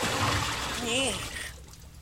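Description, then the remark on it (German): A bucket of water kept beside a desk splashes out in one loud rush lasting about a second and a half before dying away abruptly, with a brief vocal sound overlapping the middle of it. “Ach, der hat mir gerade gefehlt dass ich für solche Zwecke immer einen Eimer Wasser neben meinem Schreibtisch stehen habe.”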